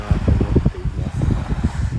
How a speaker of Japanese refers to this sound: やっぱりちょっとプレビューしてみたんですけどやなんですか iPods Pro よりやっぱり iPhone そのままで撮ってる方が音声がなんかクリアに聞こえるかなって思ったんですけどやっぱりこの風の音がねかなりボーボーいっちゃってるなっていうこんな感じで印象でございますね